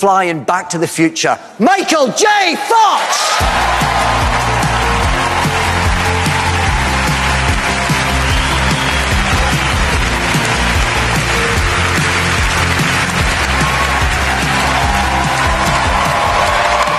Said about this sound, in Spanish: que se llevó una ovación cerrada por parte de todo el auditorio esto ocurría cuando subía al escenario Michael J. Fox.